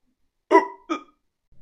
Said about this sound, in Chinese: 黑暗中突然听到了一声打嗝声，顿时吓得我汗毛倒立啊，站在原地不敢动了。